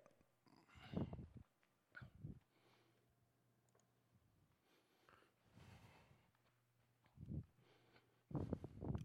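A pet puppy makes short, quiet snuffling and whimpering noises in several separate bursts at a church pew, with a faint steady hum in the background and no talking.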